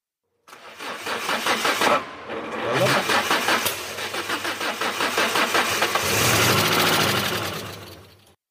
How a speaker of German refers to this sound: Das war nämlich ein Auto, was versucht hat zu starten, ein Auto mit einem fossilen Brenner.